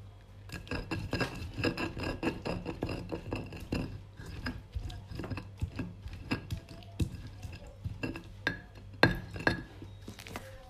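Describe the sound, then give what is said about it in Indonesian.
Steady, repeated rasping and rubbing strokes of chili sambal with shrimp paste, palm sugar, sugar, salt and seasoning being ground fairly fine in a stone mortar, with occasional sharper clinks of stone on stone and no talking. “lembab sampai halus tapi kalau misalnya suka masih agak-agak kasar nggak masalah tapi kalau gue sih lumayan halus ya mungkin yang kasar ada sebagian kecil”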